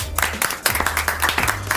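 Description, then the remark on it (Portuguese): Brief applause for Faustão of quick, fairly even claps, about five per second, at moderate loudness, with a low steady hum beneath and no voices. “de palmas pro Fausto.”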